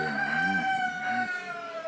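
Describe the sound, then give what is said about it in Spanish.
A single rooster crows once, a drawn-out cock-a-doodle-doo with rising and falling pitch, heard clearly at moderate loudness over a faint steady background hum. “Bueno, canto el gallo, ya me tengo que ir.”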